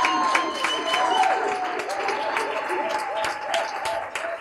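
An audience applauding steadily to welcome two guests, a dense wash of many hands clapping at a lively, even pace, with cheering and whoops mixed in over the top.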